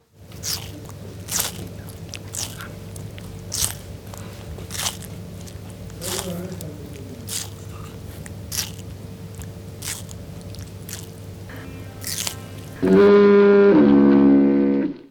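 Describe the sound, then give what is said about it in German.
A tortoise kept in a studio bites and chews a melon close to a microphone held up to it, with irregular wet crunching snaps over a low background hum, until a loud ringing doorbell chime cuts in near the end. “der isst äh, gerade eine Melone.”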